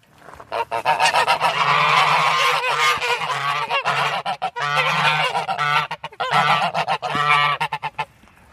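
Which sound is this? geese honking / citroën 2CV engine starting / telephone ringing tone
geese honking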